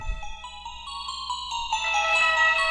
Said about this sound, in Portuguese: Já ouvi essa música. É. Vai sonora. Eh, aliás, essa, essa trilha dá uma deixa já para o seu spoiler desta, desta semana.